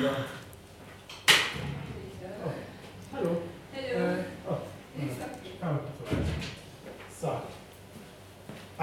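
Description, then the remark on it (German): A sharp knock lands on a door early on, with another dull thud a few seconds later, while people keep talking over and around it. “Ja, warte mal, jemand klopft an der Tür.”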